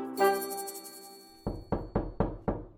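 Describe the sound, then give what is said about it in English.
Five firm, evenly spaced knocks on a door, fairly loud, following a brief sustained ringing tone that fades out just before the knocking begins. No voices. “That must be the doctor now.”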